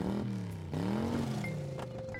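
A car engine revs up loudly, its tone climbing and dipping through a couple of surges before the vehicle pulls away, with no voices present; a car being stolen by Frank in 1965.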